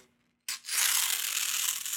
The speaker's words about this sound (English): how about tearing this piece of paper apart like i have a piece of paper here i go